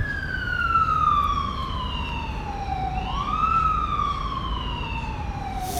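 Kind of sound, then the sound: vehicle, ambulance siren passing outside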